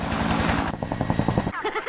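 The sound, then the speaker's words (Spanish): A helicopter's rotor thumps in a steady, rapid beat, loud, while brief voiced sounds break in over the roaring engine noise toward the end. “No me quiero abajar del helicóptero.”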